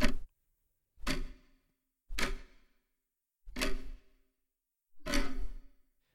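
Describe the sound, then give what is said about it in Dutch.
A clock ticks five times, about one second apart, in a steady rhythm. Each tick is sharp and fairly loud with a brief ringing tail, and there is silence between them and no voices. “En de radiografische klok die je thuis hebt staan, heeft een antenne die deze golven kan opvangen.”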